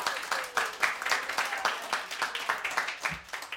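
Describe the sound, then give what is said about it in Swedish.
Applause from a small group celebrating the release of a band's compilation album, volume 1, a rapid, uneven patter of hand claps that keeps up steadily for several seconds at a moderate level, with no one speaking over it. “En applåd för det bara, för det första och främst.”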